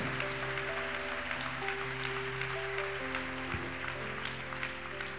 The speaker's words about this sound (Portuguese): Vamos aplaudir a Jesus então.